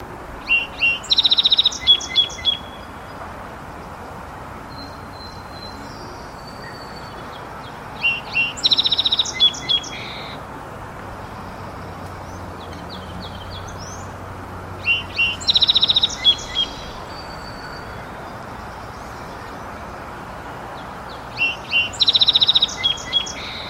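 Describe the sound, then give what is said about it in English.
A song sparrow sings four loud, evenly spaced songs, each opening with a few repeated notes and rolling into buzzy trills, with faint birdsong and a steady outdoor hiss in the background. “So there were some other uh, birds singing in the background that you might have noticed if you were listening closely, uh, but the four loudest, uh, there are four verses, I guess you could say, um, loudest songs were the song sparrow.”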